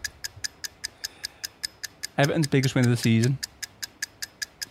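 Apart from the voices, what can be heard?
ticking clock countdown effect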